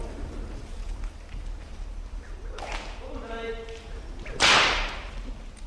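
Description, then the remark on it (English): A whip cracks sharply and loudly near the end, after a fainter snap earlier, over a low steady rumble, with a brief voice calling out between them, during training of a horse act. “Keep your whip forward.”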